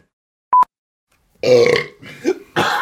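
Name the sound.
burp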